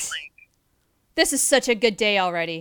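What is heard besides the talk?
sneeze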